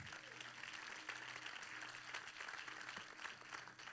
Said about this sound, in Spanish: ¿Le puede dar un fuerte aplauso a la palabra de Dios?